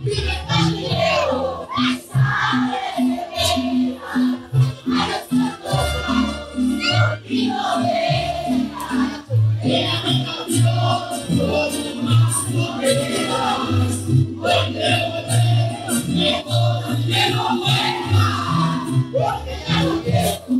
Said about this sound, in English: I just love like, and you can hear these like little kids. Everybody's singing along. Singing along. swaying.